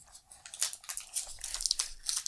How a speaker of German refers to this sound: man hört es ja auch schon, man muss ihn auspacken, weil er in Papier eingeschlagen ist. Es ist der gute alte Unterberg.